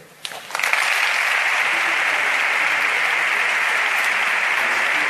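A crowd bursts into sustained applause, the twelfth ovation for the pregonero during his proclamation, a dense, steady wash of many hands clapping that rises quickly after a brief quiet start and stays loud throughout.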